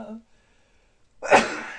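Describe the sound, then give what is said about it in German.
A single sharp, loud sneeze bursts out near the end, preceded by a brief murmured hesitation from a voice and a moment of quiet. “Ähm, Gesundheit.”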